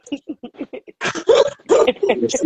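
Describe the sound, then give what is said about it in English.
A dog whimpers in a quick series of short, soft yips, then breaks into louder, longer excited whining and yelping. “Oh, this for the dog.”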